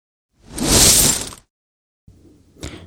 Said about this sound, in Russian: Вообще, если вы заметили, у нас немного поменялось оформление, а, добавили звук баночки с пивом. Это не значит, что я сижу и пью здесь пиво, но хочется спросить у вас, как вам такая традиция, если мы на выпуск будем выбирать баночку пива?